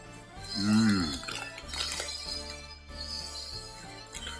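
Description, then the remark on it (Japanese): Someone eats sara udon with crispy fried noodles, with a few light clinks of cutlery against a plate and brief crunching, while a voice hums or murmurs near the start. “パリパリ皿うどんを食べながらスタエフポイント詐欺事件について語る”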